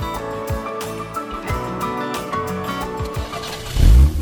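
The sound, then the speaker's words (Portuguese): A car engine turns over and starts, then revs in a series of throaty surges, ending with a loud, deep roar of acceleration. No one speaks. “Motores aquecidos, vamos lá!”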